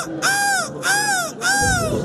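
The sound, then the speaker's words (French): A person imitates a seagull's cry with three loud, nasal squawks in an even rhythm, each rising then falling away, with no talking between them. It is the winning cry at a selection contest for the world seagull-cry championship, held during the Dunkirk carnival band on 11 February. “Voilà celui qui a gagné sa place au championnat du monde du cri de la mouette qui aura lieu le 11 février lors de la bande de Dunkerque.”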